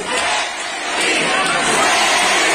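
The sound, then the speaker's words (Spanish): A large crowd of students shouts and yells together at a student protest in a multi-storey school building with a central open atrium, a loud, continuous, energetic roar of many voices, dense and sustained throughout without pause. “Es una protesta estudiantil.”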